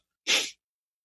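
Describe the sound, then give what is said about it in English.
A single sharp, loud sneeze, a quick explosive burst lasting about a quarter second, with silence before and after. “You fucking but, sneezed your thoughts right out of your head.”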